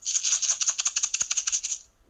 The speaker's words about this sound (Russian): Это звук гречки.